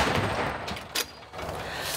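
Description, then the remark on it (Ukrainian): A single sharp boom from an American artillery gun firing a shot cuts briefly through a steady, rushing wash of outdoor noise, quickly fading back into the background hiss. “Це американська гармата, і е, її калібр дозволяє в основному працювати по піхоті і е, такій не дуже броньованій техніці.”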